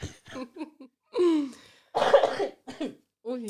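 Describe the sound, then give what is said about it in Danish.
A run of chesty, phlegmy coughs from a person with a lot of mucus on the lungs: several short bursts with a harsher, heavier cough in the middle, broken up by voiced, half-laughing sounds. “Men du må ikke få mig til at grine, fordi jeg har øh, utrolig meget, øh, nu kommer dagens lekserklassen moment, men jeg har utrolig meget slim på lungerne.”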